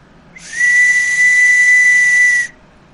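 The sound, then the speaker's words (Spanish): A single loud, shrill distress whistle blast, a prolonged signal for help, holds one steady piercing tone for about two seconds, with a breathy hiss underneath, then cuts off abruptly. No one speaks. “Si algún día ustedes están cerca de una montaña o algo y escuchan un zumbido de este, hay que ponerle atención. Debe de ser un zumbido prolongado”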